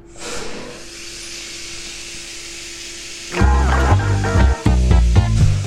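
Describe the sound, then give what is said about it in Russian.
A dental drill runs with a steady airy hiss and whir for about three seconds, then music with bass notes abruptly takes over. “Бормашина звучит вот так.”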